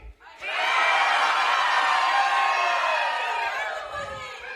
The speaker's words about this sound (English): They all just went, woo. Like, it didn't work. It didn't fucking work.